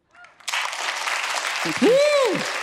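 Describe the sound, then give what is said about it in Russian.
A burst of audience applause for a therapist invited to say a few words starts abruptly and continues steadily as dense clapping, with a voice rising over it in an excited exclamation near the end. “пару слов и пару аплодисментов.”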